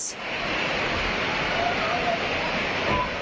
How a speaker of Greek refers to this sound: Άνθρωποι κινδύνευσαν από τα ορμητικά νερά των χυμάρων που του εγκλώβησαν στα αυτοκίνητά του σε Θεσσαλονίκη και Χαλκιδική που χτυπήθηκαν από σφοδρέ νεροποντέ.